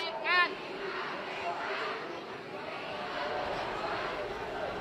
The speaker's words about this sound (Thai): ที่แยกราชประสงค์เสียงตะโกนก็จะมีตอนแรกเนี่ยจะเป็นเท่าที่ฟังได้นะ ก็คือปล่อยเพื่อนเราปล่อยเพื่อนเราก็คงจะเป็นแกนนำแล้วก็กลุ่มผู้ชุมนุมที่ถูกควบคุมตัวเอาไว้